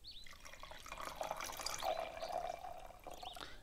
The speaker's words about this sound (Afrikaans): Terwyl mamma die kombers gaan haal, skink Callie melk in 'n bakkie vir die kat.